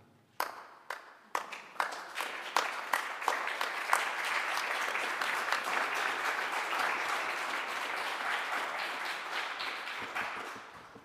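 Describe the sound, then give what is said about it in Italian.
Applause from an audience after a sung lauda by Jacopone starts with a few scattered claps, quickly swells into a dense, steady roar of clapping that holds for several seconds, then thins out near the end. “L'applauso è un po' per Andrea e un po' per Jacopone.”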